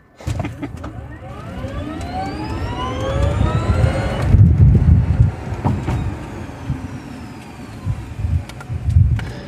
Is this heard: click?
no